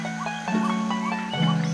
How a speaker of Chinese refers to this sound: 哎，有小鸟，有青蛙。有蟋蟀。